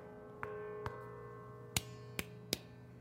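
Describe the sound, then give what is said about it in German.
A large, very heavy church bell, the deepest bell in the tower, is struck by hand five times at uneven intervals, each dull knock leaving a thin, sustained shimmer of ringing overtones rather than a full, deep toll. “Wenn man da hinschlägt, hört man natürlich nur Obertöne und ja, nicht ja.”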